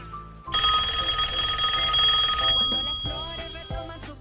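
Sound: telephone ringing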